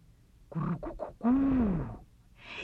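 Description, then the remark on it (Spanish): A person imitates a pigeon's cooing during an animal-sounds storytelling game: a few short, throaty coos followed by one long, drawn-out coo that rises and falls in pitch, fairly loud. “Yo voy a hacer la paloma.”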